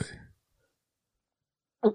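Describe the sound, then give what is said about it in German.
A loud swallowing gulp lands near the end after a stretch of silence, with a short throaty burst fading out at the very start. “Oder war das ein Furz? Also ein Schluckender.”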